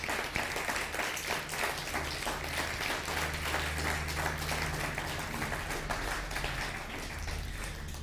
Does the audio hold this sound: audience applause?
yes